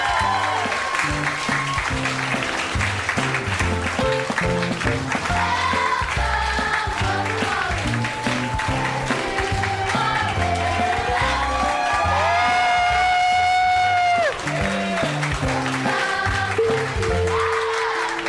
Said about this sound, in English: And welcome to the Duncan Trussell Family Hour, my two best friends, the coolest people I know in the world. Everybody give it up for Dan Harmon and Emil Amos. Let them hear it.